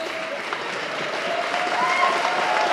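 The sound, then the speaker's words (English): An audience at New City Fellowship, a church in Grand Rapids, Michigan, applauds and cheers on a warm, sunny evening with the stained glass windows wide open: steady dense clapping with whoops and shouts rising slightly in loudness, lively throughout. “Let's whoop it up.”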